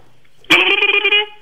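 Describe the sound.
A voice imitates a turkey gobble with a loud, nasal, rapidly warbling call lasting under a second, its bubbling pulses breaking in abruptly after a moment of quiet.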